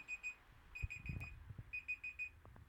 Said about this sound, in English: Sorry about that, my alarm went off to remind me.